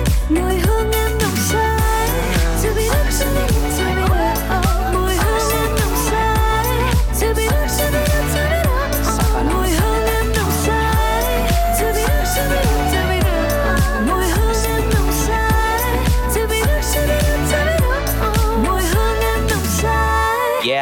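A loud, full pop track with a steady driving beat, featuring a female singer's melodic vocals alongside rapped verses over dense instrumentation throughout.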